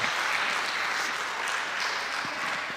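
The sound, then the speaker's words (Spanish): Sustained applause from a large crowd standing to honor and glorify the Lord, a dense, steady wash of clapping with no pauses, loud throughout. “Dale el aplauso que Él se merece.”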